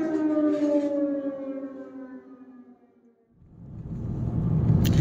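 air raid siren

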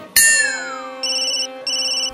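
phone ringtone

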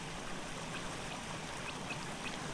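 flowing river water

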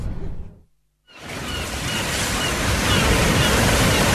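sea waves

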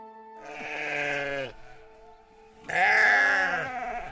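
sheep bleating

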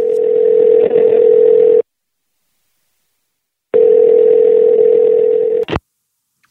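telephone dial tone

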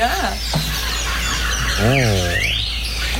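birds

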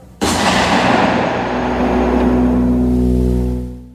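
gunshot sound effect

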